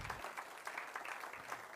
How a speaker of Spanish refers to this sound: ¿Cuántos dicen amén? Denle un aplauso a Cristo en este día, en el nombre de Jesús. Aleluya.